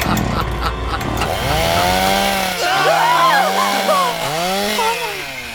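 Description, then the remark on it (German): A saw briefly starts up and runs loudly, its buzzing engine note rising and dipping in pitch several times over about five seconds. “Sag ist mir kurz angesprungen.”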